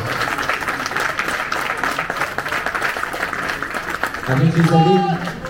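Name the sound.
audience applause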